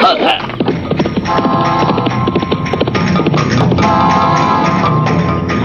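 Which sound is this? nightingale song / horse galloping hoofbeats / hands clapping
horse galloping hoofbeats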